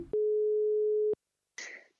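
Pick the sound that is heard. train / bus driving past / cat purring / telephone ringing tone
telephone ringing tone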